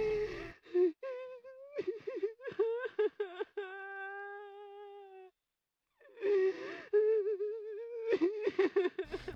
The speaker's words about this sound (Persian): رفت و من به گریه افتادم واقعا انقدر هم که به نظر میاد قوی و سرسخت نیستم با صدای بلند حق حق میکردم. و همه ترس و دلشوره و دلتنگی رو که این هفته توم جمع شده بود و بیرون میریختم